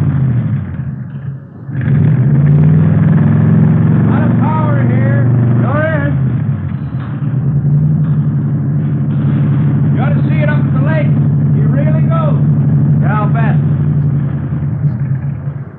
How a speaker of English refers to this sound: Mallory ignition, milled heads, twin Wakefields. Here, let me start it up for you. Okay. 120 horses under there. Yeah, sounds good. Listen to that. Beautiful, isn't it?